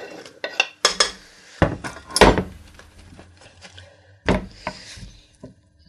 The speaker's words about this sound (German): Schneiden, feine Würfel. Also das ist wichtig. Ne, nicht so dicke Klumpen. Das ist kein Hühnerfrikassee oder so. Das ist ein Ragoufin.